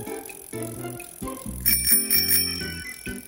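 A bicycle bell rings out in a quick series of bright, metallic dings, loudest in the middle, over a steady low tonal backing with no one speaking.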